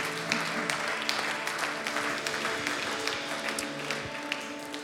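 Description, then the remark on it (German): An audience applauds steadily after a prayer, a dense wash of many hands clapping at an even level throughout, with a few sharper individual claps standing out and a faint tonal hum beneath. “Lasst uns einen Applaus geben.”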